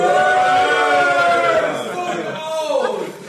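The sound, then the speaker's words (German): A few voices whoop and cheer loudly for about three seconds, with sustained, gliding high-pitched calls that seem to imitate an excited studio audience rather than a real crowd. “Das sogar einen richtig guten Tag, Zuschauer toben.”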